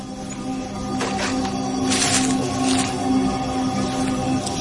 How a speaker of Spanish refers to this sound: Es como si el suelo crujiera, como si algo pesado estuviera caminando por aquí, pero no sé qué será.